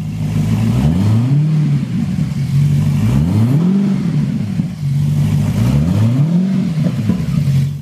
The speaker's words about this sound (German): du da übrigens Röhren hörst, ist eine echte Höllenmaschine. Ein Einzelstück mit einem Maserati-Motor mit 470 PS und vier Reifen.